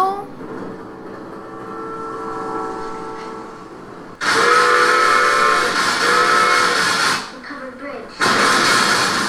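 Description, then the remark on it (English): A toy train set's steam whistle sounds in steady, sustained tones, followed by two loud bursts of rushing, hissing steam with a brief lull between them. “a cool train set though.”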